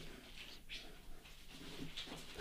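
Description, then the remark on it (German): A visiting dog weighing about 38 kilos breathes and snuffles with soft panting and a few brief rustles, steady and fairly loud, with no one talking. “wir haben hier Hundebesuch.”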